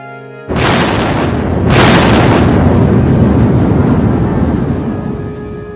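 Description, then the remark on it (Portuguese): Heavy naval gunfire from the battleship Prince of Wales, firing to defend the Suffolk against the German battleship Bismarck, erupts in two loud blasts about a second apart, followed by a long rolling rumble that slowly fades. No voices are heard. “Naquele momento dramático, o príncipe of Wales abriu fogo para defender o Suffolk.”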